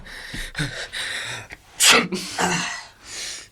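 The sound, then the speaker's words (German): A person with a cold lets out one sharp sneeze after a few halting, sniffly intakes of breath, followed by brief breathy, congested-sounding exhales. “Ich habe von Jeff gehört, dass du erkältet bist”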